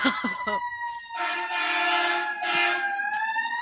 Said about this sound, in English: Colfax sirens.